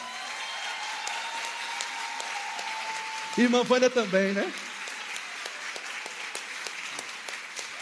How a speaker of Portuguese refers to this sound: queria que você desse no mínimo uma salva de palmas para a vida dele.